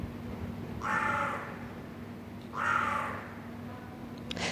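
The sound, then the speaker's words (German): Two harsh caws of carrion crows, about a second and a half apart, ring out against a low background hum in the inner courtyard of an old apartment building in Vienna's 1030 district, Austria, echoing slightly off the surrounding walls. “Seit einigen Wochen wohnen hier auch Krien.”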